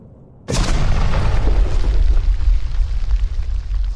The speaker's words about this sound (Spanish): yo a lo lejos escuché el ruido de un avión. Y de repente, una explosión.